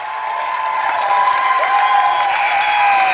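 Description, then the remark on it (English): The Central Catholic crowd applauds steadily at a basketball game against Hastings St. Cecilia after a personal foul is called. The applause is a dense wash of clapping with scattered cheers and whistles riding over it, holding loud and even for the full few seconds. “And the Central Catholic contingent just to our left with a rounding applause there.”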